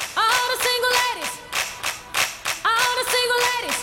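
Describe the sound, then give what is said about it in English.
Steady, rhythmic hand claps drive a lively, loud gospel-style church beat, made as a sanctified, Southern-style beat, with a bending melodic line sounding over the claps. “I'm thinking about like to me, it's a church beat.”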